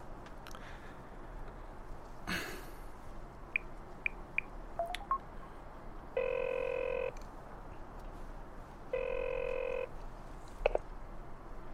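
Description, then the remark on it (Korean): A few short dial tones beep, then two steady bursts of a telephone ringback tone sound in turn, each about a second long. Faint background noise and a soft click run underneath, and nobody speaks. “지 씨한테 전화해볼까?”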